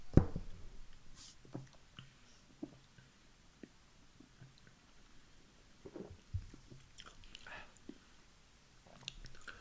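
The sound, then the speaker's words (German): Quiet mouth noises of someone tasting a gingerbread beer, an amber-coloured festive beer from a can: scattered wet smacks, small clicks and swallowing sounds at an irregular pace, with no talking. “Probieren wir mal, ob wir ja. reinbeißen oder rein trinken können.”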